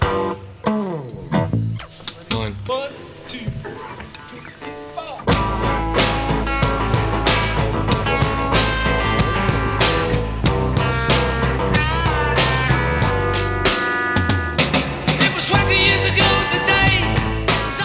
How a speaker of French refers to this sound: la prise neuve de ce qui deviendra bientôt le titre phare de l'album majeur de la musique pop du XXe siècle.